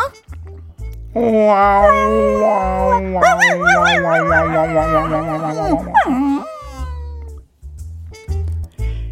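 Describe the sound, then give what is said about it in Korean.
A pet dog kept at home howls in one long, wavering cry lasting several seconds, its pitch climbing and trembling before sliding down into a whine, loud over a steady thumping musical beat. “집에서 키우는 강아지가 넘버 3로 보이는 순간이다.”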